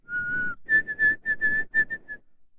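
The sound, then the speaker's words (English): A person whistles an imitation of the white-throated sparrow's song, which is interpreted in Canada as 'oh Canada, Canada, Canada': one long steady note, then a higher series of short repeated whistled notes in a triplet-like rhythm. “That, yeah, um, that's the white-throated sparrow, and it used to be we interpret it in Canada as oh Canada, Canada, Canada.”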